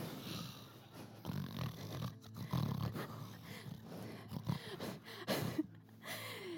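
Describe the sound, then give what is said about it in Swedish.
Loud, rough snoring, a few heavy rasping breaths with snorting edges repeating over several seconds, with no talking. “det värsta jag vet är att vara, sova med människor som snarkar.”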